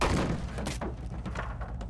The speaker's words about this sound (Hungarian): Megfogta jobb kézzel az előtt álló konyhasztalt, majd mintha csak egy vékony papírból lenne, nekihajította a falnak.